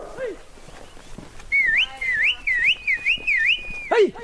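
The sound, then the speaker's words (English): A loud whistle from a three-man team of wranglers chasing a baboon troop out of a village repeats a run of five or so rising, swooping notes over about two seconds. Brief shouted vocal calls come just before and right after it. “By clapping, shouting, and whistling, this three man team begins to nudge the troop out of the village and into a grove of pine trees.”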